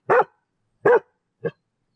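A small dog yaps three times, clear, with the last bark shorter and softer; the barks are spaced unevenly with silence between them and no talking.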